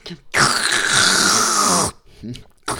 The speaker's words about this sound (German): Hast du schön geschlürft?